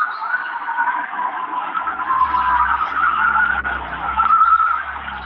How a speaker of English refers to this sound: It gets closer. I mean, you can kind of hear. Sounds like cars are peeling out, but Yeah.